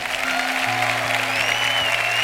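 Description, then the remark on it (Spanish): A crowd claps loudly and steadily, a dense wash of applause filling the space, with a low sustained hum underneath. “Dele un aplauso fuerte.”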